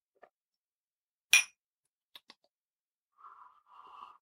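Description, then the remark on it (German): Beer glasses clink in a toast: a single bright glass clink rings out, followed by two small taps and then soft sipping or swallowing sounds, with no one talking. “Prost.”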